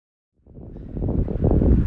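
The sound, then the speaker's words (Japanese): After a moment of silence, a low rumble of passing car traffic swells in and grows steadily louder, a broad engine and road noise from a street in a town centre lined with old buildings, heard while walking, with no voices. “さて、ちょっと聞こえてきましたでしょうか。え車の音がすると思います。ちょっと街中の方に出てまいりました。”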